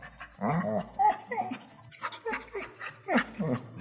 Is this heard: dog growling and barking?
yes